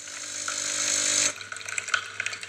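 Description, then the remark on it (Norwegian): A filter coffee maker hisses and hums steadily while brewing a large cup, then cuts off abruptly, leaving soft scattered drips and small clicks. Fairly quiet, with no voices. “Det er lyden av en stor kopp kaffe som blir betrakta.”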